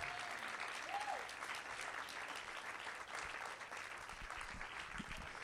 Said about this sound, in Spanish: Eso merece un aplauso, pero si usted realmente lo comprende,